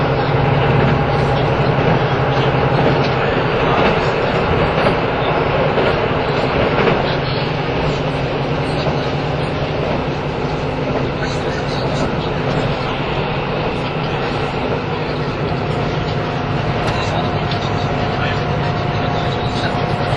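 A KiHa 85 series diesel limited express train, the Hida No. 1, running between Hida-Kanayama and Hida-Furukawa in Japan, with a loud, steady engine drone, a constant low rumble and humming tones that continue without a break.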